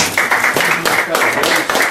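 audience clapping

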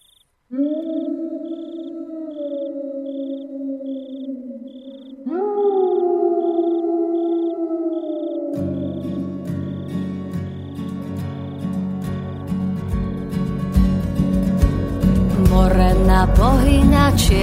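song track played

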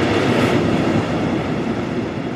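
passing train

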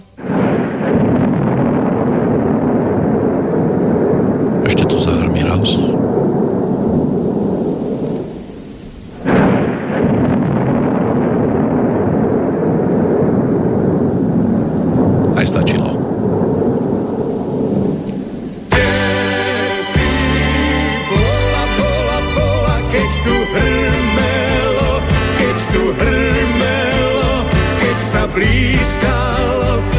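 thunderstorm

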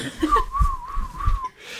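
person whistling

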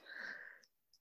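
sneeze

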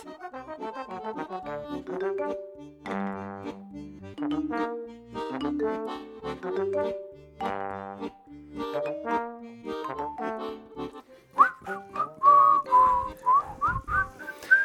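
person whistling a tune

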